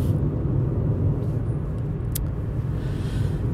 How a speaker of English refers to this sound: This is just me sitting in my car